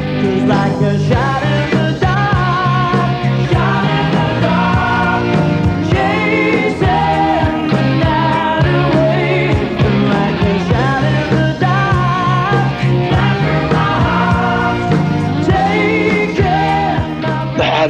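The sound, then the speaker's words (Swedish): A 1983 hair metal rock song plays loud and steady, a dense full-band mix of sustained chords and rhythmic beats with no talking over it. “Det vi ska lyssna på nu, … från 1983, är exakt samma låt. Helt annat sound, helt annan musikstil”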